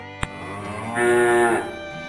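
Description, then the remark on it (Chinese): A sharp click, then the angry bull king of a children's story gives a single loud bellow lasting about half a second: a deep, buzzing, harmonic roar that swells and then drops off. No one speaks. “爱生气的牛大王大吼一声。”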